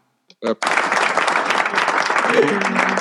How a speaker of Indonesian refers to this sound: tepuk tangan ah